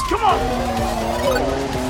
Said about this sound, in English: the car inches forward, pulling Tuoro along with it